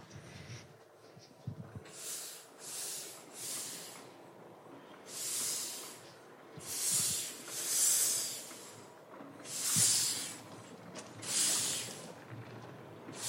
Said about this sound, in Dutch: Die stoom die komt uit, uh, uit de cilinders, hè? Ja, je ziet het hier inderdaad. De stoom die komt uit de stoomcilinders. Dus de rode hendel staat open? ja, ja, die staat nu open, inderdaad.